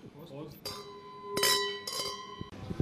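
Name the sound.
wine glasses clinking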